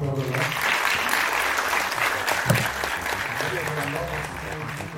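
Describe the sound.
A crowd applauds four speakers steadily with dense, even clapping that holds at a full, constant level for several seconds, while voices murmur faintly underneath.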